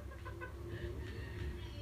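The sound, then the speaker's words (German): A chicken in a video game clucks in short, repeated bursts, fairly quiet, over a steady low rumbling background with no talking. “Ich gebe einfach dem äh, Huhn vor allem, äh, Wildschwein auf den Headshot.”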